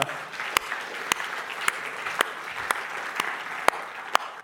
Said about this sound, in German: Stark. 63. Das ist Applaus, komm. 63 Taufen.